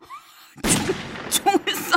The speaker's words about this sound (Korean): 그러나 곰은 제 말에는 아랑곳도 하지 않고 그리고 그때 울리는 총성